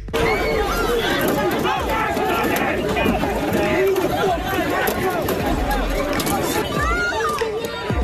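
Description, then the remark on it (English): A dense, chaotic crowd of protesters in downtown Chicago roars with overlapping shouting voices and babble, a steady loud wall of agitated chatter and yelling with no single voice standing out, continuing for the whole stretch. “sounds from a chaotic weekend at this uh, protest in Chicago.”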